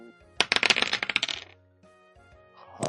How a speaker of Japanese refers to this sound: 最下位ですけど頑張ります。サイコロドーン。